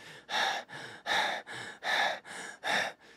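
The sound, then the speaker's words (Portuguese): A person imitates the fast, heavy, noisy breathing of exercising at the intensity threshold, with about eight loud, breathy inhales and exhales alternating in a steady, rapid rhythm, with no talking. “a minha respiração, eu vou começar a ficar com ela mais ruidosa, ou seja, ela mais rápida e eu faço mais barulho.”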